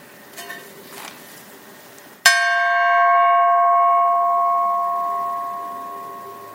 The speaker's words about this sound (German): Und dann brauchen wir King Gong gleich. King Gong ist da.